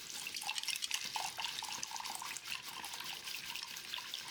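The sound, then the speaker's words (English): Cold Dosis coffee pours steadily into a glass with sweetened condensed milk at the bottom for several seconds, a continuous trickling and splashing with a bright, watery texture and no voices. “So we just put sweetened condensed milk at the bottom of our glasses, and we're pouring the cold coffee on top.”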